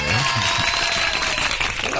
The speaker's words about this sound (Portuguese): Venceu. Palmas!